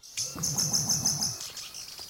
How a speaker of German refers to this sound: Ich habe mich mal auf die Suche nach dem Sound, nach dem Gesang dieses Vogels gemacht. Das ist gar nicht so einfach, aber es gibt ein BBC-Filmteam, das hat diesen Gesang sogar mal aufgenommen. Klingt nicht so richtig romantisch, aber klingt so